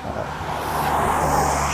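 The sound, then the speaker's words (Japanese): Steady outdoor traffic noise as cars come through on a road, one driving past in a broad tire-and-engine rush that gradually swells louder, with a low rumble underneath and no voices. “まあでもここの道ちょっと車がガンガン入ってるのはご容赦くださいですね。”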